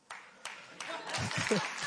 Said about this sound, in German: er fing an zu applaudieren. Das war sein Applaus.